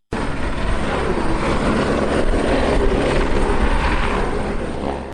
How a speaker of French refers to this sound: Trois hélicoptères dans le ciel au quartier Togben pour les exercices militaires métropolis. Quelques minutes après, les hélicos atterrissent très loin des journalistes pour sauver des otages prisonniers de groupes armés. C'est une simulation.